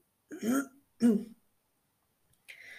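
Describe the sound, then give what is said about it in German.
A caller on a phone call to the criminal police in Chemnitz gives a short throat clearing in two quick voiced bursts, followed after a brief silence by a softer, breathy rasp. “Ein kurzes Räuspern war zu hören, dann meldete sich eine Stimme.”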